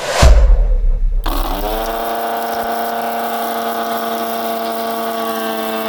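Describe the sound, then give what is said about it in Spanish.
A motor kicks on with a brief surge, then settles into a steady, loud, continuous hum with a constant pitch that holds unchanged to the end. No one speaks. “Ejemplos de estos ruidos son producidos por los motores.”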